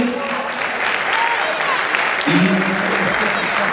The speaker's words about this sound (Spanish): Un aplauso para quienes nos han acompañado esta tarde.